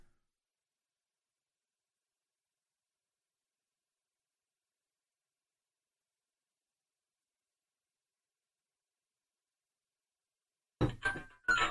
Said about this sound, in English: Oh boy. And then there's a phone call.